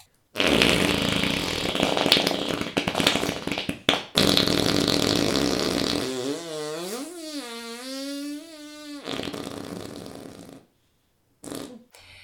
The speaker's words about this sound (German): Der hat ja, ja. einige Facetten. Also er ist am Anfang sehr feucht und dann äh, geht er so, zischt er so mhm. weg und dann kommt nochmal so ein kleiner Nachfurz